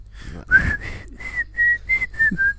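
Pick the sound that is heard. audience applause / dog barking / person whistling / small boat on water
person whistling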